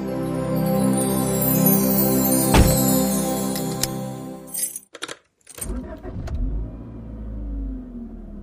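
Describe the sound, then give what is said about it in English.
A car engine hums steadily, then keys jangle and a few sharp clunks sound before a low road rumble takes over as the vehicle drives off, heading out to a Titanic exhibition. No one speaks. “Uh, do you mind driving, hun? No, I'd be glad to.”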